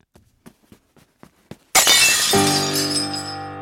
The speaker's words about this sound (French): Oh, mes patatras oh, J'ai renversé le vase de Chine qui s'est écrasé au sol et brisé en mille morceaux.